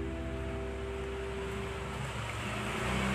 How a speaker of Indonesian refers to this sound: ya ya ada motor